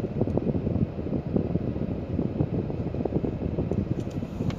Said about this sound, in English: Wow. Yeah, that helicopter's getting bigger.